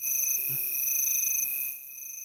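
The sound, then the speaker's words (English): Crickets chirp in a steady, high-pitched trill that carries on without a break, fairly loud, with no one talking. The sound thins out slightly near the end. “Give him, give him the crickets.”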